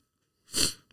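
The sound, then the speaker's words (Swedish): A single sharp sneeze bursts out after a moment of silence, loud and breathy with a quick explosive release, followed by a faint little sniff or exhale. “Måste jag nysa?”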